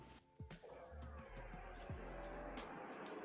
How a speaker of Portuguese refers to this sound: Aqui é o carro passando no fundo e eu sou o Chevette sozinho.